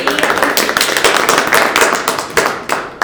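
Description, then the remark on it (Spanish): Steady applause from a crowd for a newly elected student council, many hands clapping in a dense, continuous patter for a few seconds, loud and even with no voices standing out. “Se me ocurre en un próximo capítulo traer al centro estudiante recién electo, a los que les mandamos también un abrazo, un cariñoso abrazo y, aplauso también si que escuchando”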